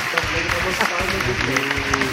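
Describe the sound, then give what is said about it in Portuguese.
An applause sound effect: a steady, dense wash of many hands clapping for about two seconds, with some cheering voices mixed in and no pauses. “E palmas, palmas virtuais que nem essa aqui, ó.”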